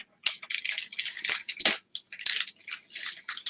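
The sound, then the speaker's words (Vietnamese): Crinkly rustling as a child eats a snack, like a snack wrapper being handled, in irregular bursts of crackle, continuing for several seconds with brief pauses and no talking. “mọi người có nghe tiếng sột soạt không bác sĩ nhắc nó đó là nhắc em bé đó là con im lặng nha nó nói là con bé bánh thôi mà con có làm gì đâu”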